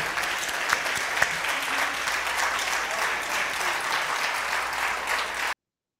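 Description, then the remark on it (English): An audience claps steadily for about five seconds for Ambassador Thompson, a dense, even wash of applause that stays loud throughout before cutting off abruptly. “give another applause to Ambassador Thompson.”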